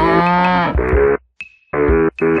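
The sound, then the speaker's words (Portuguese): Cattle moo loudly, a long drawn-out bellow followed by several shorter moos with a brief pause and a faint click between them. “Hoje o boi está em alta aqui no Porteira Aberta. Agora o boi aqui é cultura, presta atenção.”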